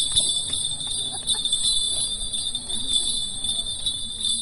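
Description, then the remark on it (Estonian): Bright, continuous jingling of many small bells worn around the ankles, shaking with steady dance movement in Bali, a dense shimmering ring with faint background murmur underneath. “but it is fun at least some you know bell as well so every time we move and then we make some really nice sound aga see on tore meil on jalgade ümber kellukesed ja kui me liigume siis need helisevad ilusasti”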